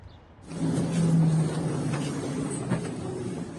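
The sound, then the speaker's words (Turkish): A steady, loud rumble of a Marmaray commuter train carriage in motion, with a low droning hum and occasional clacks from the rails, beginning abruptly after a brief quiet moment, as a transport minister rides standing among passengers. “Marmaray'da bir bakan ayakta yolculuk yapıyor.”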